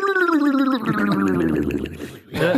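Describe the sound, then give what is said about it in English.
A voice imitates the last of the air escaping from the folds of Boss Nass, a gurgling, bubbling rush starting as a wobbling harmonic tone and dissolving into a rough, throaty gargle, loud, with a brief pause before one last burst. “not him actually making that sound. It's just the last of the air escaping from the folds.”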